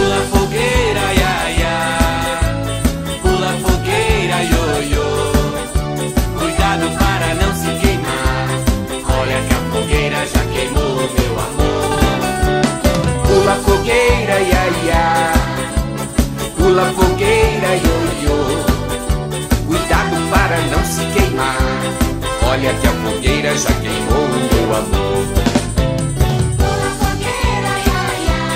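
A lively children's festa junina song plays loudly and continuously, with a bouncy, steady dance rhythm and full, bright instrumentation filling the whole stretch without pause.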